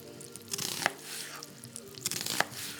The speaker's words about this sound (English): The kitchen faucet is running and she's chopping an onion.